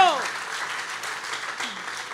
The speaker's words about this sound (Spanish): Si usted va a aplaudir a Dios aquí, Espíritu Santo, oh Dios mío.